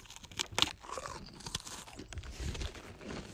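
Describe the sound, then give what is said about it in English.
Crisp crunching of crackers being chewed, a series of sharp bites and grinding crackles at a steady chewing rhythm, with no talking. “Okay, no, stop crunching the.”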